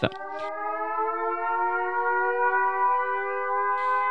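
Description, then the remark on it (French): A civil defense alert siren blares steadily and loudly in Germany around 11 a.m. as an exercise for the first national population alert day, a sustained multi-tone wail holding its pitch for several seconds with no voices present. “Si tu habites près de la frontière avec l'Allemagne, tu as peut-être entendu hier vers 11h des sirènes.”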